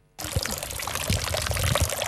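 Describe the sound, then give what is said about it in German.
Water splashes steadily into a fountain basin in Winterthur, fed by groundwater pumped right next to it at the Oberslinsental groundwater pumping station from about 15 to 20 metres below the surface; a continuous patter and gurgle that starts abruptly and holds at an even, fairly loud level with no voices. “Das Wasser, das in diesem Brunnen plätschert, wird gerade nebendran gefördert.”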